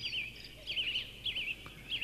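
Birds chirp in short, repeated bursts of high twittering at the start of a song, several calls in quick succession at a modest volume over a faint low background hum, with no one talking.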